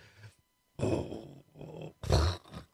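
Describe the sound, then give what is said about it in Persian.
A dog growls in several low, rumbling bursts, fairly loud, with short pauses between each snarl. “یک عدد سگ این عدد صدای سگی که میاد”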